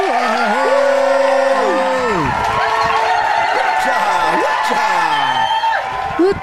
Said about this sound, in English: We need some applause uh, buttons on yeah, there, yeah.